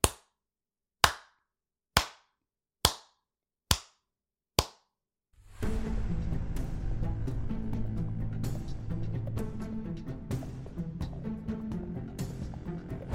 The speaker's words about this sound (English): on the stage is all four ba- uh, members of …, and they all just slow clap